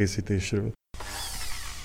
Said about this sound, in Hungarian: Most készítette éppen a Sárga Barack cefrét egy fúrógép segítségével. Turmixolta, most önti bele nagyon szépen. Már majdnem teli van ez a 50 literes. 80. 80 literes hordó.